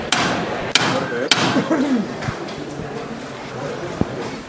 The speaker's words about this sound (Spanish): Ya ha recorrido la capilla entera, pero se está prolongando la maniobra, ¿no? Efectivamente, sí, efectivamente. Todavía nos encontramos dentro. Y ahora parece que vuelve a sonar el llamador.